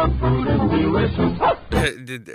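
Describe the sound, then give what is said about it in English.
A dog gives a few short, sharp barks in quick succession near the end, following a stretch of muffled, sung-sounding voice. The barks are fairly loud. “Oh, and then a dog did a bark.”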